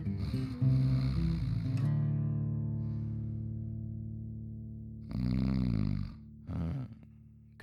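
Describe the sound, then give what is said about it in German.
A person imitates snoring: one long, rumbling, drawn-out snore that slowly fades, followed by two shorter, buzzing snorts. “Könnt ihr auch schnarchen?”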